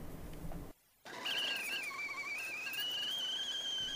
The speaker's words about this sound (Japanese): いい音なります。湯気の音。